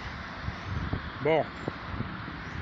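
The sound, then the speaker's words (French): Steady wind rushes and buffets against the microphone of a WIPO E1 phone outdoors at night, a constant hiss with low rumbling gusts, while a man briefly says a single word partway through. “Bon il y a du vent déjà.”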